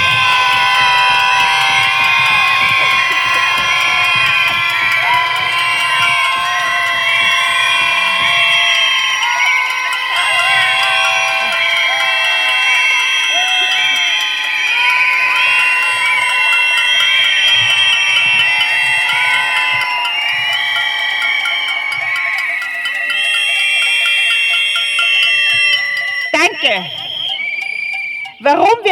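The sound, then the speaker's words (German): A protest crowd screams and cheers continuously while handheld noisemakers, whistles and horns shrill on top, a loud, dense, sustained din lasting nearly half a minute with no pause. “dass wir kräftig unsere Stimmen und eure mitgebrachten Materialien hören wollen.”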